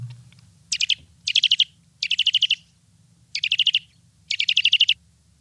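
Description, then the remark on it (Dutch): A Eurasian nuthatch gives five quick bursts of rapid, piping notes, each a short trill of several clear whistles, with brief pauses between and a low hum underneath. “Wat horen we hier? Het is de boomklever.”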